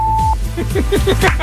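A short, steady, mid-pitched censor bleep sounds once at the start, followed by a run of rapid sweeping, chirping vocal-like sounds.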